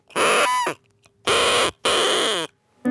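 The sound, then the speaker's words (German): Three loud, buzzy blasts from a party horn noisemaker from a table bomb (party cracker), each lasting about half a second to a second, with short gaps between them and a brief squeak at the end. “Diese Geräusche kommen alles von Sachen, Tröten, Pfeifen, die aus Tischbomben rausgespickt kommen.”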